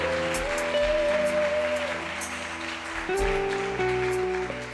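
A large church audience claps steadily and loudly throughout in praise of God, a dense wash of applause with sustained keyboard chords playing beneath it.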